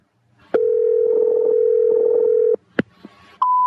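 A steady telephone dial tone hums for about two seconds, then a sharp click and a brief pause before a higher, clear dialing tone starts, as a phone call to Pumpkin Collectors Gallery is placed. Fairly loud, with no voices.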